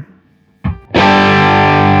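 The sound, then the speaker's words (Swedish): A heavily distorted electric guitar chord rings out after a short pick noise, played through an amp with the gain turned up to maximum, sustaining thick, buzzy and loud with saturated overdrive filling the sound, no voices present. “Jag tror att den märks mer också ju mer distat du har, så vi drar tillbaka gainen på max.”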